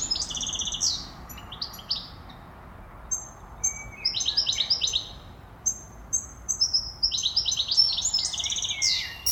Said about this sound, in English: Jonathan and Antonia hear something that had been absent for a very long time the sound of chirping birds.